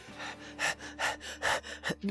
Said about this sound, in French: Essoufflé.